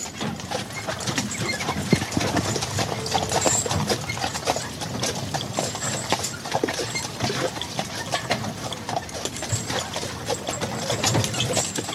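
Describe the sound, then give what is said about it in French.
Carriage horse hooves clip-clop in a steady, continuous rhythm on a hard surface, with dense clattering and street noise filling the background throughout. “mais ils savent faire ce qu'on a besoin dans le travail de la calèche.”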